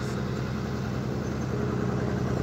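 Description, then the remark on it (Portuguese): A truck passes by, its engine rumbling steadily in a loud, low droning growl that holds an even level throughout with no voices over it. “Tá passando um caminhão, vai fazer um barulhão é retado aqui.”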